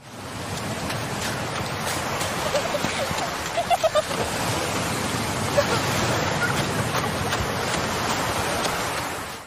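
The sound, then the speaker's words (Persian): A steady, continuous roar of sea waves and surf, dominant in the opening sequence of a film, fills the whole stretch, broad and hissing, with a few faint brief tones rising briefly above it near the middle. “یک نکته در مورد سکانس ابتدایی فیلم اینه که صدایی دریا غالبه و این ناخداگاه ما رو یاد فیلم درباره الی میندازه”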